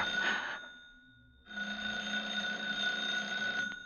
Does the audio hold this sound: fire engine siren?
no